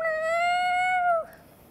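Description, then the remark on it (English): A single drawn-out meow, sustained and steady before dipping at the end, loud, most likely a person's voice imitating a cat, with nothing else around it. “But the cat notices and is going,”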